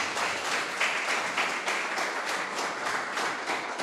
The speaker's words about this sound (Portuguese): Dê um aplauso ao Senhor.